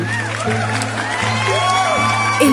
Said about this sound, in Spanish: pueblo celebró la decisión del sabio rey, pues preferían ser gobernados por un caballo que por un tirano.